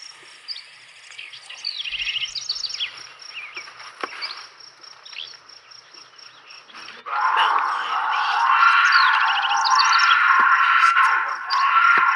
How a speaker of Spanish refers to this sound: Que se oye como un grito muy un pero agudón, así. Ese es un gato montés gritando. Ok. Entonces, era un gato montés.